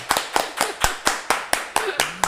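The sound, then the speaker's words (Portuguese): Applause welcoming a guest: a steady run of about ten sharp, evenly spaced claps at a brisk rhythm, fairly loud and crisp, with a faint murmur of voices underneath. “Uma salva Uma de palmas pra, ela.”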